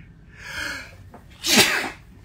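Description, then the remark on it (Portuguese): A single loud sneeze from a person with an allergy: a rising breathy intake followed by a sharp, hissing burst, with no talking alongside it. “Caraca, tô com alergia.”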